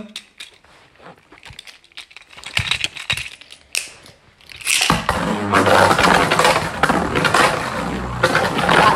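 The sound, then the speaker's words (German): A few light clicks and rattles, then an attack-type spinning top from the Turbo series is launched and spins very fast, starting a loud, steady whirring drone with a buzzing hum that continues to the end, a brief voice heard early. “Ist auch unfassbar schnell.”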